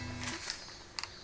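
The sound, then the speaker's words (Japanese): A steady, shrill buzzing of cicadas at one speaker's home drones in the background, fairly faint, with a couple of brief sharper high-pitched pulses rising out of it near the end. “ちょっと待って君のとこすげえセミ鳴いてな”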